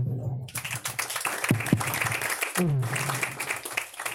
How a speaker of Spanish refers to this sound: Un fuerte aplauso.